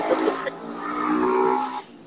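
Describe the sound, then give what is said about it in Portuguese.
A loud motorcycle roars past, its engine droning steadily for about two seconds before fading off, with no talking over it. “Passou uma moto Passou ali estourando.”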